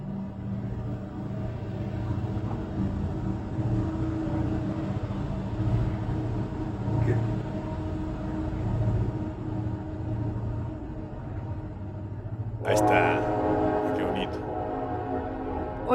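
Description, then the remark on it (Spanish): A train rumbles steadily as it draws near, passing behind a home beside the tracks, then a loud horn blares for the final few seconds. Its low, continuous roar fills the background throughout. “Se, está acercando el tren, vivo atrás del tren.”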